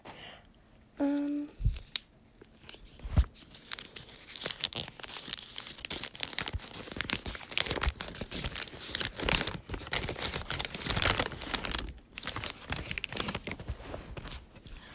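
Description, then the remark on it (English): Sheets of math paper being crumpled and handled, a dense, continuous crinkling and rustling that goes on throughout with a few brief sharp crackles, loud and without any talking. “Another math paper.”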